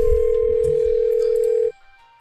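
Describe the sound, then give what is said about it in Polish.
A telephone ringback tone during a call that goes unanswered: one steady, loud beep held for nearly two seconds before cutting off abruptly, with a low rumbling background beneath it. “Dobra, czekaj, sygnał e, jest.”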